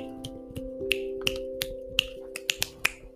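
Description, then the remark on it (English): A string of crisp finger snaps by a person scrolling through a list, about a dozen over a few seconds, some sharp and some softer, in a loose uneven rhythm over a faint steady low hum. “My snapping is getting sad because I'm trying to scroll through them all.”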